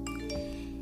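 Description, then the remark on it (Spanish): A short electronic notification tone from the speaker's mobile phone, a bright chime with steady ringing tones at moderate volume with no talking over it. “Este, ay, perdón, ese era mi celular.”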